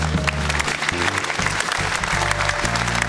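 Steady, dense applause from the studio audience of the show Doppelpass, welcoming referee Daniel Schlager. A loud continuous crackle of many hands clapping at once, with a low musical tone droning underneath.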